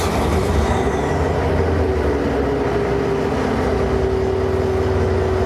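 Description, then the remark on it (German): A locomotive diesel engine, one of the locomotive's four engines, starts up and settles into a loud, steady rumble, its low droning hum rising slightly in pitch as it runs. No one speaks. “Schmeißen nämlich alle vier Motoren an.”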